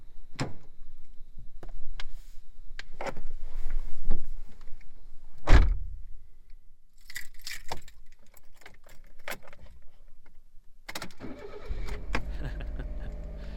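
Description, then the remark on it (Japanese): A kei car (Japanese light car) being entered: scattered clicks, thuds and a door shutting, then a starter whirs and the engine catches into a steady low idle near the end. No one speaks. “あとはねえー、軽自動車に乗り込みエンジンをかける音”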